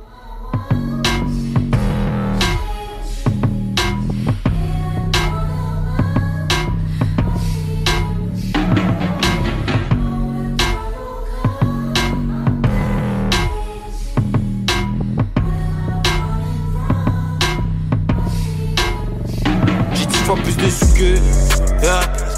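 A French rap track plays loud and full, a dense beat with steady pulsing bass and crisp percussive hits running throughout, shifting abruptly just before it ends.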